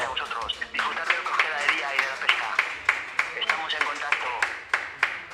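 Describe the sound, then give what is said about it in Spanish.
A small group in a studio claps steadily during a live broadcast, giving applause to a guest, with sharp irregular hand claps running throughout while voices cheer and talk loudly over them. “Y un fuerte aplauso que te vamos a dar desde aquí en directo.”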